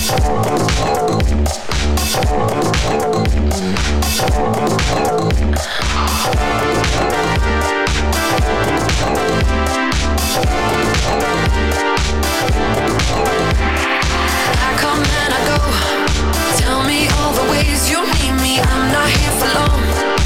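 A loud, upbeat pop song by a female singer plays throughout, with a steady driving beat, bright synths and continuous full-band production.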